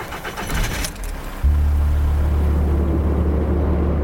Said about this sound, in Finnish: Tumman sinisen saapin ovet pamahtavat kiinni ja auto kartaa vesilätäkön yli tielle valot välkkyen. Samaan suuntaan kuin äskeinenkin auto.